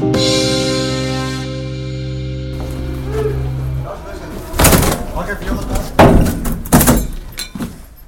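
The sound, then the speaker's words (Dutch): A steady droning tone gives way to a run of loud bangs and splintering crashes as doors are forced open during a police raid on business premises at the Ravenswade business park in Nieuwegein in the morning, with raised voices mixed among the impacts. “Deuren die werden opengebroken, vier aanhoudingen en invallen in meerdere bedrijfspanden bij bedrijventerrein Ravenswade in Nieuwegein was dat dus.”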